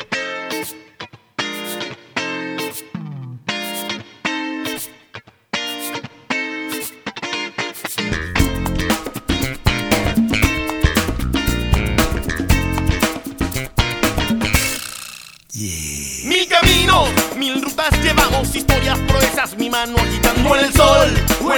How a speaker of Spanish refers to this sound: Vamos a escuchar una canción de nuestros hermanos scout venezolanos en un jamboree que se realizó allá en Venezuela